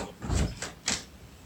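A door is pushed shut: a low thud-like scrape followed by a couple of short clicks as it settles, with no talking.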